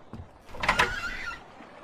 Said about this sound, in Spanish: La puerta. ¿Quién será?